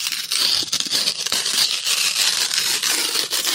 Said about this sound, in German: Papier, Papier zerreißen.